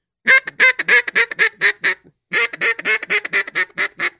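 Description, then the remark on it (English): A duck call blows a bouncing hen call: two quick runs of loud, nasal quacks, each sequence tumbling along in a rhythmic cadence with a short pause between them, heard alone. “Okay, some so like a, a bouncing hen.”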